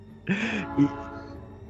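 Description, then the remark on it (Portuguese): A brief train sound with a tonal, horn-like blast over a low rumble, fading quickly within about a second and a half, heard on its own without talking. “Eu posso mutar ou pode passar o trem? O, o trem do Pode passar o trem.”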